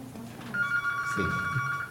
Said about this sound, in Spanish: Es su teléfono, puede ponerlo en silencio, no se preocupe.